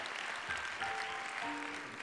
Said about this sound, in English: And so, yeah, you can clap your hands and thank the Lord for that.